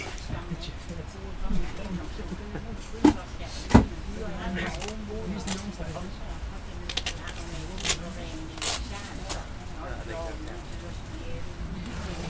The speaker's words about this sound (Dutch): We vertrekken vanaf Utrecht Centraal. zaterdagmiddag is het rond half vier. En zo klinkt de stilte coupé.